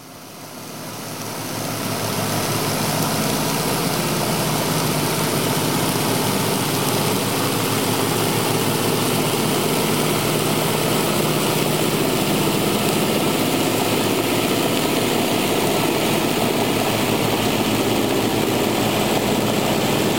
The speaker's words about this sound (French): Et le deuxième, c'est un, petit transport de passagers. Donc c'est une genre de petite navette, quoi. Mais euh, il est un peu plus gros et du coup son bruit est un peu plus grave.